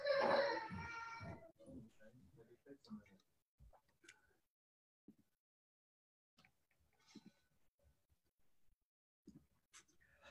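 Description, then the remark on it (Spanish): The speaker's children cry loudly for the first second or so, then it falls mostly quiet with faint, scattered whimpers and small noises. “A ver, voy a hacer una pausa de 10 segundos, perdón, es que mis hijos están llorando.”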